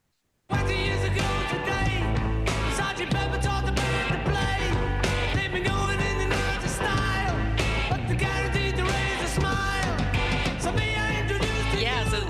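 A rock song plays from a recording, loud and full, with driving drums, guitars and sung vocals running continuously for about twelve seconds after a brief silent start.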